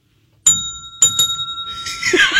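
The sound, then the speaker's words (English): A bright bell dings three times, one strike and then a quick double, each tone ringing on clearly before a rushing, hissy noise swells in at the end. No voices. “Michael Porter and, and here's the one that I think I thought you were going to ring the bell on most: Brandon Ingram.”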